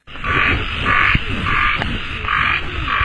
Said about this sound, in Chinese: 夜晚九点的花博园，草间蛙声，虫叫蝉鸣。因为下午下过暴雨，湿漉漉的草地上反射出点点灯光。